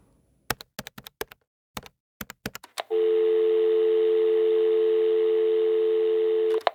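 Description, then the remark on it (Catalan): A quick series of sharp clicks as a number is dialed on a telephone, followed by a loud, steady electronic dial tone that drones for several seconds before cutting off. “He de fer una trucada.”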